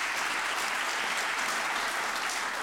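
An audience at a full event claps steadily throughout to welcome the hostess, a dense, even wash of many hands with no voices standing out.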